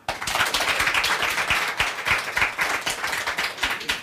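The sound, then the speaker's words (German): The women in a hall audience clap steadily for about four seconds, those who would like to be a man for a day, a dense, even patter of many hands at a fairly loud level with no voices over it. “Ähm, alle Frauen mal bitte klatschen, die gerne mal, wir, wir schrauben es mal ein bisschen runter, für einen Tag ein Mann wären.”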